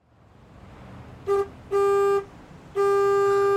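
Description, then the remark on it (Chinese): A bus pulling up on a street honks its horn three times: a short toot, then two longer, steady mid-pitched blasts over a low rumble of traffic. “正好公交车来了，拽好衣服，上车回家。”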